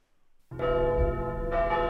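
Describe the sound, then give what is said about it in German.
Church bells ring out loudly after a short silence, their rich harmonic tones overlapping and sustaining, with a second strike adding brightness about a second later. No voices are heard. “Die 3 wird umgedreht. Die Kirchenglocken.”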